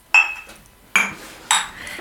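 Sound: glasses clinking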